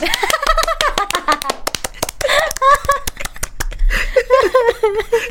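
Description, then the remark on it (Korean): A quick burst of clapping: sharp, uneven claps keep going for several seconds while people laugh and talk over them. “잘된 방법이라고 생각하면서 우리 박수 한 번.”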